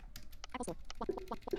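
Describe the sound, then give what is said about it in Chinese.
Quick, irregular clicks of keys being typed on a Logitech wireless keyboard from an MK365 keyboard-and-mouse set, its wireless receiver plugged into a device for use with an iPhone, a rapid run of taps followed by a few short tonal blips mixed in with the keystrokes. “啊，现在我把这个无线接收器已经插在这个东西上面，嗯，用我的这个罗技的这个无线键盘，是个当时买的这个键鼠套装 MK 三六五”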